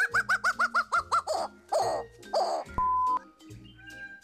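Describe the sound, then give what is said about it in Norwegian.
A bird calls: a quick run of about seven bright, chirping notes, followed by a few longer harsh squawks and a brief steady whistled tone, with no talking. “Men først får du David Attenborough intervjue fugl.”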